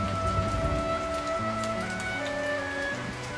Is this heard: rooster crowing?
no